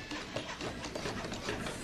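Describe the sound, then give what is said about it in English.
Busy construction clatter from the hand tools of 64 hands building a house for the homeless, with overlapping taps and mechanical rattling forming a dense, steady din, with no voices. “64 hands building a house for the homeless.”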